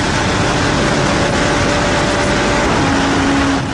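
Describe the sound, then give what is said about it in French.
A motorcycle in third gear roars at high speed, weaving between cars in highway traffic, in a recording of vintage sound quality. A loud, continuous rush of engine and wind noise with a steady whine that drops lower near the end. “slalom entre les véhicules avec qualité sonore d'époque”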